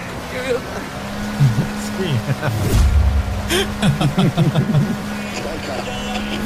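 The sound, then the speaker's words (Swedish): A motorboat engine in a video game drones steadily at a low pitch, with bursts of rushing, splashing water, while a man talks over it. “Den här båten tar vi.”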